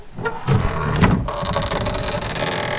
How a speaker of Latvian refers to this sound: Šādi čīkst koka eņģis.